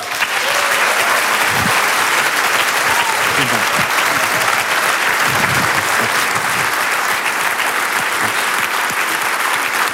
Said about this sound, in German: Vielen Dank. Äh, Dankeschön. Dankeschön. Ja, vielen Dank für diesen warmen Applaus, meine Damen und Herren.